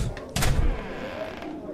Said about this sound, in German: Mitten im Satz schlägt die Tür auf.